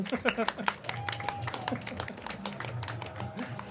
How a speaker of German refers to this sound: Dein Applaus.